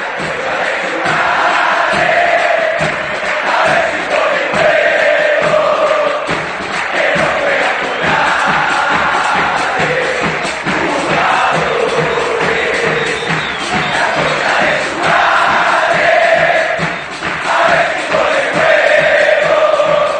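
A large crowd of Argentina football supporters chants in unison, loud and sustained, with voices rising and falling in a steady rhythmic pattern for about twenty seconds, and no separate speaking voice.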